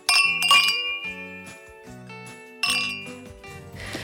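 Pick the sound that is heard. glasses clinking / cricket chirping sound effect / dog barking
glasses clinking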